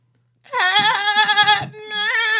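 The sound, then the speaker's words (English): A woman's voice imitates a billy goat's bleat with two loud, quavering cries: a long wavering one followed after a brief gap by a shorter second. “She does a good Billy Goat.”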